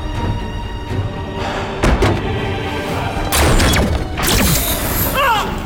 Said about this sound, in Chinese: 任小亚再怎么砸门喊叫，他都毫无反应。